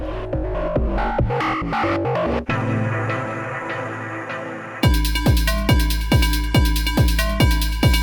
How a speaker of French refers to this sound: C'est-à-dire qu'on, je sais pas si vous entendez, mais on a de la reverb, mais la reverb elle, elle s'arrête à chaque note.